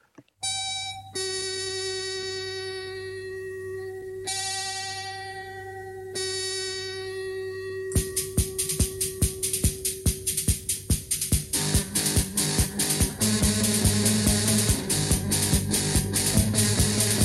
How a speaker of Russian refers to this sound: Итак, слушаем психоделический панк из города Омска, записанный в обыкновенной омской квартире на самопальной студии, но продукт получился действительно уникальным.